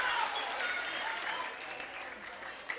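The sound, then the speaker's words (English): An audience claps in a dense, steady wash of hand claps that starts loud and gradually thins and softens toward the end, with faint voices mixed into the noise. “And you can applaud that.”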